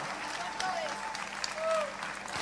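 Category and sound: crowd, audience applause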